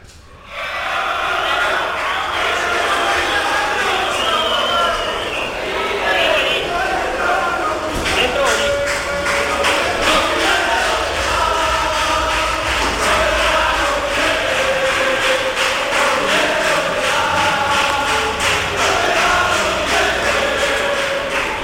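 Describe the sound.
A large crowd of Sevilla football fans chants and shouts outdoors at the gates of the Sánchez Pijuán stadium, demanding resignations, a dense continuous roar of many voices with rhythmic chant patterns, steady and loud throughout.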